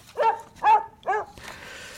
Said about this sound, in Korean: 자, 개 짖는 소리가 오늘 보물소리예요.